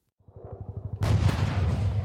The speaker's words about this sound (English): Here I am, on the front line, it's mayhem. There's gunfire, shouting, chaos.